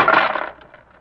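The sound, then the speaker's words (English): A brief clatter of coins hitting a hard floor, a bright jangling burst that scatters and settles into a few faint rattles within a second, with no voices. “You dropped some coins”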